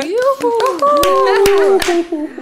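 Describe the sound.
A few sharp, irregular hand claps, brief applause, ring out over lively, high-pitched voices talking and exclaiming.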